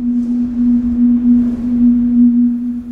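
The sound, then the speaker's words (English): High winds make the decorative rooftop structure of a tall residential building in Europe hum: a steady, loud, low tone that drones unbroken throughout, with a rough rushing wind noise underneath and no voices. “When they first built it, they suddenly realized when the winds got really high that it made this amazing humming sound.”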